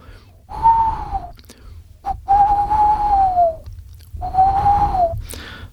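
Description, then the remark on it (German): A human voice imitates a male tawny owl with three long, wavering hoots, the middle one drawn out longest, fairly loud with brief pauses between them. “Aber ich habe den Waldkraut zum Beispiel ähm, bei mir am, am Schalsee direkt gegenüber in der Kirche. Und das Männchen”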